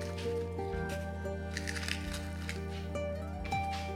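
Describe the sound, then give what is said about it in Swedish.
A match is struck to light a candle, with short rough scraping bursts and a brief crackle, over a steady low humming drone. No one speaks. “Ljuset som jag faktiskt ska tända nu igen.”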